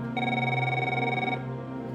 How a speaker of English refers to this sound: She's finally about to go to sleep when the phone rings.